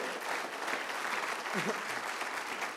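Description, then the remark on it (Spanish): Steady applause from an audience, a dense, continuous wash of clapping hands at a moderate level with no pauses, and a faint voice briefly rising beneath it. “Alguien aplauda si está de acuerdo conmigo.”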